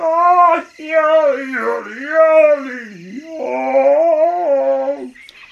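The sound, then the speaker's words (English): A voice imitates a hyena singing loudly at night at dinner time in a story: a sustained, wavering howl that swoops down and up in pitch through several phrases for about five seconds, with no words spoken. “Hmm, hyena is a nuisance when he sings so loudly at dinner time.”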